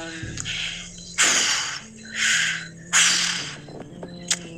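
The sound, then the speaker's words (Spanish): A voice imitates a bull's snorting, recreating strange sounds heard around 2 to 3 in the morning, with three forceful, breathy huffs in quick succession, fairly loud, followed by a brief sharp puff of air. “El chiste es de que a las alrededor de 2 y 3 de la mañana escuché unos sonidos extraños escuché como el bufar de, un toro.”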